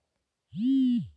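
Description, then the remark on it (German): A pet dog lets out one short, drawn-out whine, steady and fairly low in pitch, lasting about half a second and heard on its own. “Okay, mein Hund nervt gerade richtig.”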